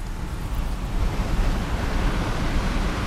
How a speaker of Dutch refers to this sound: Dat is de zee.